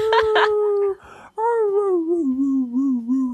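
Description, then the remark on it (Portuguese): A person imitates a puppy howling: a short high whine, a brief breathy pause, then a long, loud, wavering howl that slowly slides downward in pitch. “Cara, ela, a noite inteira ela uivando, cara. Ah, uivando, uivando.”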